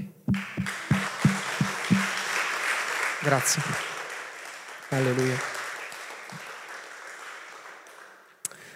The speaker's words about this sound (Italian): E io qui farei un applauso a Dio.